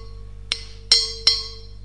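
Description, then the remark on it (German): Three bright glass clinks in quick succession during a toast, each ringing briefly with a high, shimmering tone over a low steady hum, with no voices. “Ähm, ja, ich sag Cheers und probieren gleich.”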